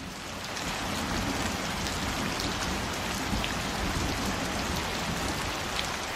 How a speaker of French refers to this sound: Voilà, ça y est, elle est enfin arrivée. D'abord quelques fines gouttes, puis un joli crachin, qui s'est immédiatement transformée en averse des plus serrées.